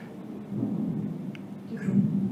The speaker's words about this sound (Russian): А это гром, это гром. А, если вы думали, это просто гром оказался.